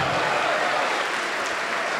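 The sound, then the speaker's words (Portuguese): A crowd applauds steadily, a dense, continuous wash of many hands clapping at an even loudness with no voices standing out, applauding in praise of the Father, the Son and the Holy Spirit. “Enquanto você aplaude, diga assim: essa é para o Pai, aplaude.”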